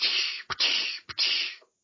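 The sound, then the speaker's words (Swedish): A voice imitates the whip-like crack of creatures' tongues, as in the film Predator, fairly loud: three long hissing swishes, each of the first two cut off by a sharp clicking snap, in a quick repeating rhythm. “låter som en piska så här, som i Predator.”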